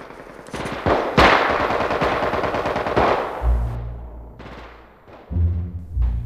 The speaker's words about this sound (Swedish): Jag manade på mina tappra gossar, men fienden bjöd hårt motstånd med minkastare och gevärseld.